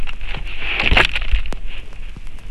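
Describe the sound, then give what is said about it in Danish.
A book is set down into a basket with a soft rustling thump near the middle, then a couple of sharp creaks and clicks of wicker, over a steady low background hiss. “Det er lyden af en bog, der bliver lagt i en kurve.”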